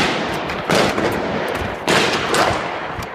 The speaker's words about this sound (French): À nouveau, les assaillants ouvrent le feu. Les policiers font marche arrière tout en essayant de riposter.